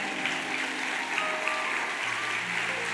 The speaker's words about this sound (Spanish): Denle un aplauso al, camarógrafo principal.